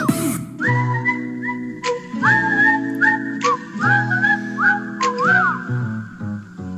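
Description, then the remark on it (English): A bright whistled tune opens a jingle for The Tony Kornheiser Show radio show, repeating short rising phrases in a bouncy rhythm over steady instrumental backing, loud, with no voices. “All right, we took the long way around on this one, but we will have email and jingle when we return.”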